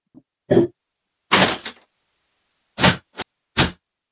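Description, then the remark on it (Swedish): A window being closed: a few sharp thumps and knocks with a brief scraping slide, spaced by short silences, then a final solid clunk. No voices. “Ja, jag ska bara ta en paus direkt, det är någon som står och skriker utanför, så jag ska stänga fönstret.”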